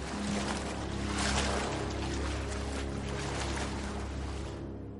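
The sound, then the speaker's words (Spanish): Two people wade through ankle-deep water in a sewer tunnel, footsteps sloshing in an irregular rhythm and splashing over a steady low rumble with a faint tonal hum, and no one speaks. “Él y Caetenay avanzan por un túnel con el agua por los tobillos.”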